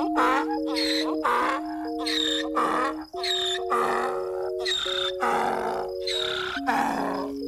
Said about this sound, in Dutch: Wie ooit aan het eind van een lome dag een ezel heeft horen roepen, die weet wie het leed der wereld torst.